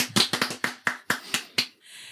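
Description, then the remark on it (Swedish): A brief spatter of applause in a studio welcoming a guest: about nine sharp, crisp hand claps in a quick, slightly uneven rhythm, ending abruptly and leaving a soft, steady hiss. “Applåder!”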